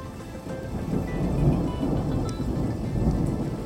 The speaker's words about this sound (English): A hot June evening in 1987. A thunderstorm is moving in on a family reunion, the Reinders family reunion